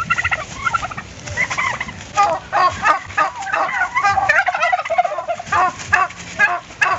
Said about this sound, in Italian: Litigio tra tacchini.